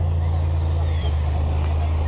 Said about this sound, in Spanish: Ya el tráfico vehicular aquí se, está acumulando aquí sobre esta avenida Carlos de la Madrid bejar precisamente por, por este bloqueo. Pues hay inconformidad precisamente de los automovilistas porque no pueden, no pueden pasar